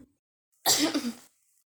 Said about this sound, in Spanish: ¿Eso fue un estornudo o, un, tos? No, tos sí.